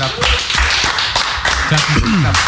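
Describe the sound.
Someone claps their hands repeatedly in a steady, fairly quick rhythm, the sharp loud slaps continuing while people talk over them.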